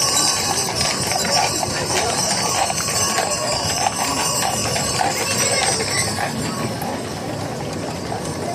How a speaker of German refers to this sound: Jetzt haben wir einen Sound. Hier kommt ein Wagen von der Augustiner Brauerei mit, ein Bierwagen mit Pferden. Hört mal hin.